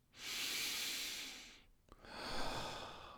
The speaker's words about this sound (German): Ah, und jetzt kontinuierlich atmen, verbundene Atmung, zyklische Atmung